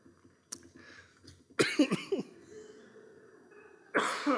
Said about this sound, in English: It was a sympathetic cough from you there. oh boy. Sorry, I apologize.